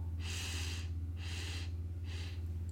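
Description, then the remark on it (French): A deep, complete breath drawn in three airy stages during a breathing exercise, filling the belly then the chest, each stage shorter than the last, over a steady low hum, with no talking. “Et tu vois déjà que le fait de, prendre cette grande inspiration et cette d'expulser l'air sur une expiration qui est courte et brève, déjà, ça fait remonter l'énergie en toi.”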